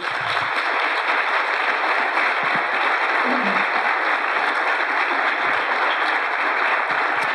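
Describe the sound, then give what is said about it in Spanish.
Steady applause fills an assembly hall, a dense, continuous patter of many hands clapping at an even level throughout, with no voices standing out; the clapping comes from the group around Vilda while the rest do not applaud. “ahí vemos nuevamente cómo el sector de eh, el, entorno de Vilda aplaude y luego el, resto no, es decir, como no, ahí como es una minoría pero que está concentrada”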